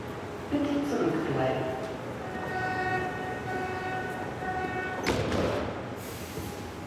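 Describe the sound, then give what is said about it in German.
A train rumbles through the underground level of the Munich U-Bahn station at Marienplatz, its motors giving a steady high whine over a broad roar, with a sharp clatter near the end and faint voices murmuring in the background. “Im Untergeschoss der Münchner U-Bahn am Marienplatz.”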